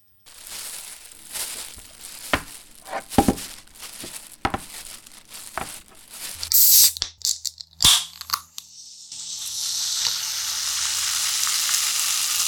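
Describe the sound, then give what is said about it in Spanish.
A soda can from a food delivery fizzes: scattered crackles and clicks, a few sharp snaps, then a bright, steady hiss of bubbles that swells and keeps going to the end, with no voices. “Se debe haber movido mucho la lata en el viaje.”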